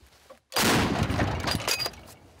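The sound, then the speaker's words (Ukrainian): A single heavy artillery gun of the Vovky da Vinchi battalion's artillerymen fires a shell on a difficult eastern front direction: a sudden, loud blast that rumbles and roars for over a second before fading, with no talking over it. “Тут арта не умовкає, ні наша, ні ворожа.”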